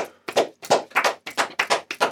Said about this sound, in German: Klatschen okay. zu zweit oh, klingt oh. sehr wack.